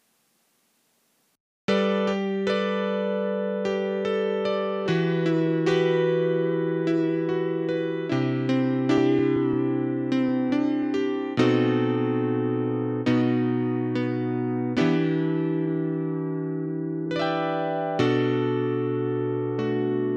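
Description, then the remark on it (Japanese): A Yamaha CP80 electric grand piano plays a slow sequence of sustained chords with bright, hard, percussive attacks. After a brief silence it rings steadily for about eighteen seconds, with no voices. “で前回ちょっと話をしました、えー、ヤマハのですね今度は CP80 っていう楽器の音を出してみたいと思いますのでその違いをちょっと聴き比べてみてください。”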